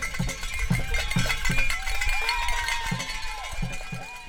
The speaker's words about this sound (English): The Riverkeeper Noise Committee bangs pots and pans, rings cowbells, and drums on overturned buckets to welcome the kayakers to Ten Mile Hole in Apalachicola.